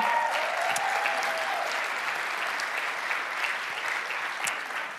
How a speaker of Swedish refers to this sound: Eh, jag har de bästa föräldrarna som är mina största exempel. Ja, de är värda en applåd.